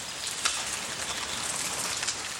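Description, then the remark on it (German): Light drizzling rain, starting shortly before animal feeding time, gives a steady, soft hiss with faint patters of droplets, even and unbroken throughout, with no voices. “Kurz vor der Fütterung fängt es leicht an zu nieseln.”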